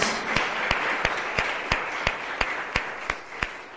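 An audience applauds those taking the training at the academy, including the CENCAM participants: a dense wash of clapping with one sharp, steady clap standing out about three times per second. No one speaks over it.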